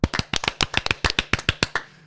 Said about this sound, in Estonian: teeme väikse võib-olla aplausi siia vahele, sest et hoiame ennast ka sees, et Soomele palju õnne olümpiakulla puhul